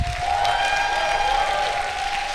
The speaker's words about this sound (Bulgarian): О, ръкопляскай, ако вярваш. Извикай, ако вярваш.